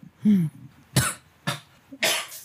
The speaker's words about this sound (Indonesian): ya udah batuk Gua aja, gua aja sekarang, gua aja sekarang lagi batuk-batuk. Cuman gua jujur gua nggak tahu sebab gua apa.